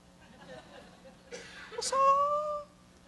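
A baby whimpers close by, soft fussing that rises into a brief, strained, wavering cry lasting under a second before trailing off, over a faint steady hum.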